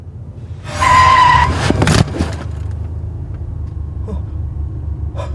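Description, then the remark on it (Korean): A car brakes hard at speed near a rural bus stop on a dark winter night. A loud, high tire screech lasts under a second, followed by a sharp thud and a low engine rumble that continues steadily afterward. “브레이크를 밟은 민석 씨는 너무 놀라서 핸들에 머리를 대고는 덜덜덜덜 계속 떨었어”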